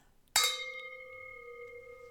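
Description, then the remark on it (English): A single bright clink of glasses touching in a toast, fairly loud, followed by a clear ringing tone that lingers and slowly fades. No voices. “Okay, cheers. cheers. friends.”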